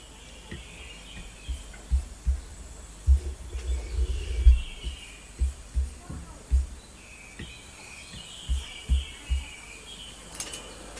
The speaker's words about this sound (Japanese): まあ、ちょっと、まあ、ゆったりね、鳥の声でも聞きながら、目覚めてくださいませ